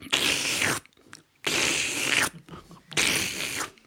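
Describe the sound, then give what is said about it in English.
A voice imitates loud gulping or drinking: three harsh, noisy bursts of under a second each, separated by short pauses, forceful, with no speech. “there down below was a feller running through a pasture, stopping at ponds and drinking the ponds dry in one gulp.”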